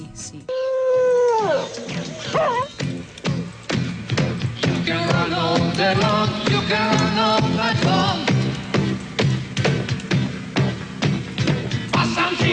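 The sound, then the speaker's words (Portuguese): A television theme song plays loudly and continuously, opening with a long sliding wail before a steady, driving percussive beat and bright melodic lines kick in, with vocal-like tones carried over the music. “Eu vou ter de exorcizar isto adotando o tema de Orzovei como toque de telemóvel. Olha, como é que isso se escreve?”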